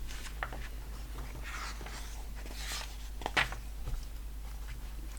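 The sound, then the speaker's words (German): Book pages being leafed through: a run of soft, papery rustles and swishes with one sharper crinkle partway, quiet and steady, with no one talking. “Jetzt muss ich einmal hier blättern.”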